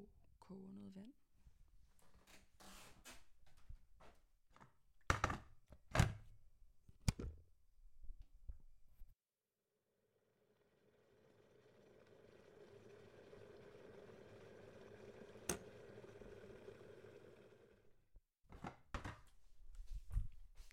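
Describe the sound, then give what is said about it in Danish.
Sharp clatters and knocks from handling a blue electric kettle in a kitchen, then a steady rising rumble as half a litre of water heats to boiling for several seconds, ending in a few more clicks and thuds. “Nu går jeg øh, ud på badeværelset med en halv liter kogende vand i min flotte blå elkedel.”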